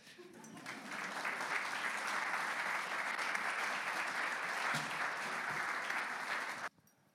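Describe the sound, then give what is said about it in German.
Steady audience applause for about six seconds as a speaker's parents are called onto the stage, a dense wash of clapping hands that builds quickly, holds loud and even, then cuts off abruptly. “Darum kommt doch auf die Bühne, euer Applaus.”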